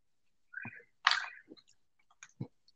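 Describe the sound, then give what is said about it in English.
Someone munches crunchy chips, with a handful of irregular crackling bites, one louder sharp crunch among them, separated by brief quiet gaps and no talking. “Is it something crunchy? Mm, no, I just Nuts? got some extra chips.”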